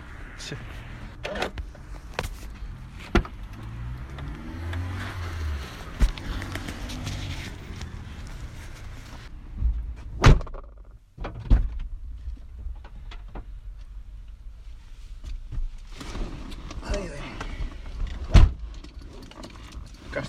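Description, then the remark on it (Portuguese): Handling noises inside a car: a series of sharp clicks and solid thumps, like a door and window mechanisms, with a low rumble in between and faint background murmuring. “estamos nós outra vez a gravar dentro do carro.”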